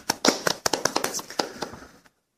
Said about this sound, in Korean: 와, 아, 박수, 박수가 나와야 돼요, 이때.